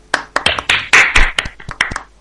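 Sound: hand clapping applause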